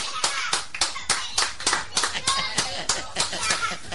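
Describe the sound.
A burst of audience applause: loud, sharp claps overlapping in a quick, steady patter that keeps going for several seconds, with a faint murmur of voices underneath.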